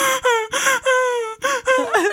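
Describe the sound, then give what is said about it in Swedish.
A voice imitates a crying wail: a series of drawn-out, tonal sobbing cries separated by short breaths, fairly loud, the last one wobbling up and down in pitch. “så de hittade mig för de bara hörde”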